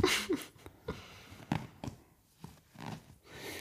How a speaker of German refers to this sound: ich finde schön, dass wir so einen Geräuschemacher im Podcast jetzt auch haben. Du trommelst.